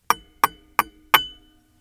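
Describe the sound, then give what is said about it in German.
Four bright metallic taps at an even pace on a metal napkin ring, each a sharp ringing clink with a short shimmering decay, clear with no talking, in a small vocal booth in a studio. “Es ist ein metallener Serviettenring.”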